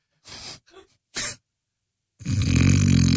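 Loud snoring: three short snorting rasps, a brief pause, then one long, heavy, rumbling snore that continues to the end. No one speaks.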